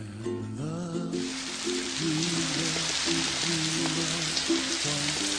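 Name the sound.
rain falling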